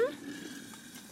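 Hot water is poured into a bowl, a soft continuous splashing hiss heard up close for about a second, opening with a brief higher ringing note.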